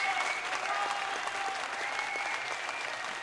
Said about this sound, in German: Bitte Applaus einspielen, ihr. Ah, ja, genau. oh nein, Moment, das ist der falsche.